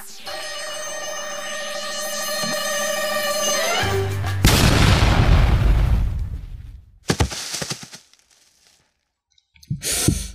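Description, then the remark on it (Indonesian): A high, warbling electronic ringing tone rises in pitch for about four seconds, then a phone self-destructs in a loud explosion bursting out with a rumbling crackle, followed by a few sharp cracks and a final short blast. “Panggilan ini akan berakhir dalam dua detik dan ponsel ini akan hancur sendiri dalam tiga detik.”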